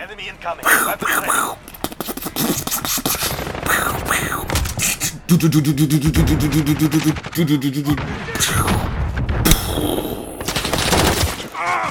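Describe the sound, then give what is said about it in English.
Rapid bursts of gunfire sound effects crackle in dense, loud volleys, mixed with voices and a brief buzzing, wavering tone partway through. “bang! Bang, bang, bang, bullet sound bang!”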